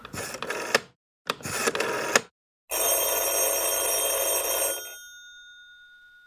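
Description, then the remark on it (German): A phone call rings loudly as someone is called with a mobile phone: two short bursts of jangling bell, then a longer sustained ring that fades out, with no voices. “Ähm, rufen wir ihn mal gleich mit dem Handy an.”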